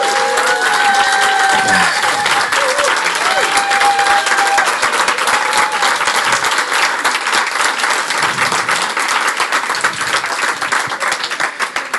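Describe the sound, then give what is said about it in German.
A full audience applauds steadily for the whole stretch, celebrating their oldest member turning 90, dense overlapping claps forming a loud continuous wash, with a few faint cheers and whistles rising above it early on. “Auch ein Grund zum Feiern, auch ein Grund für einen Applaus”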